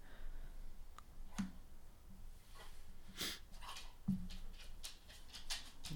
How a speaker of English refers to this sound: Pablo, what was going on, man? Why are you barking at the lady? Don't bark at the lady, Pablo.